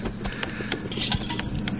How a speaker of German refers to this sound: das waren die Samples nur aus einer Kaffeemaschine nur von, aus. Und nur von einer.